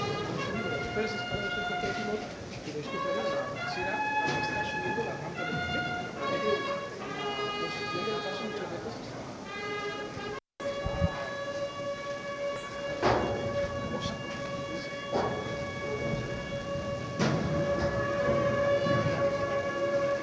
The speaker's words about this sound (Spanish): Cuando desde la calle y sin más espera suenan las cornetas.